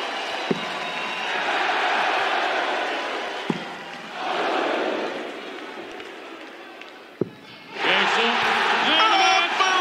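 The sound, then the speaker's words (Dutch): A darts crowd at a semi-final against Dimitri van den Berg roars and cheers wildly in sustained waves, swelling and dipping, with a few sharp thuds cutting through and a final surge of loud, shrill whooping near the end. “Ja, Iedereen wordt lijp, publiek lijp, uh, commentatoren lijp.”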